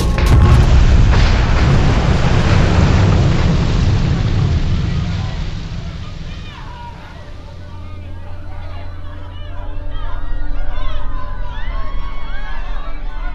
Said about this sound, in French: Le Titanic se brise de toutes parts. Une des quatre cheminées géantes, celle que Dick avait tant admirée à leur arrivée à Cherbourg, s'écroule de toute sa hauteur.